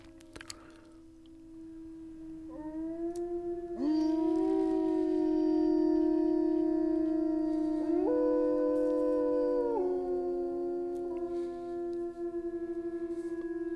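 wolf howling

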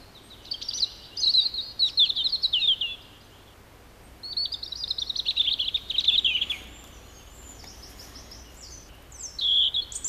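european robin song

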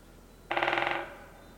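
great spotted woodpecker drumming

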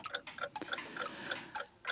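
wall clock ticking

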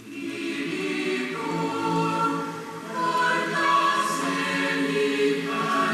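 choir singing

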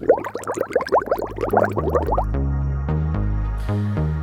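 bubbling liquid

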